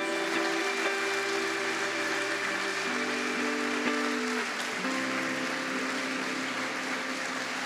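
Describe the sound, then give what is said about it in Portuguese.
An audience claps steadily as a dense, continuous wash of applause, with sustained keyboard chords playing underneath and no voices standing out. “Dá um salve de palmas para Jesus, amado.”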